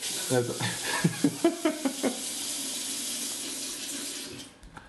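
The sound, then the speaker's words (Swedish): Water pours steadily into a glass, a continuous splashing hiss with a few brief gurgling bursts early on, tapering off near the end. “Vill du eh, ha vatten”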